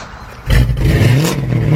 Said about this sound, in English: Man, that car sounds good. Oh, you know, it's just that Carnage exhaust I got at Troy's Muffler.